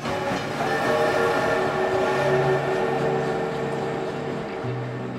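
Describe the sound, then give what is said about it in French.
An SNCF train rumbles steadily on the rails, its low mechanical drone and sustained tonal hum filling the scene, with a horn-like tone sounding near the end. No one speaks. “J'espère que vous êtes prêtes et prêts à prendre le train avec moi.”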